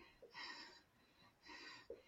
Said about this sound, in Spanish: Mi respiración, si te fijas, se empieza como a alterar